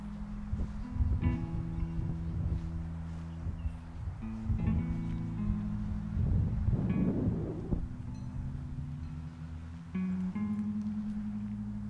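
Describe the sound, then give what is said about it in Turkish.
Steady low rumble of vehicle traffic outdoors, with engine hum and a louder swell as a car seems to pass midway, fading back into the continuous background drone. “Biraz trafik var dışarıda.”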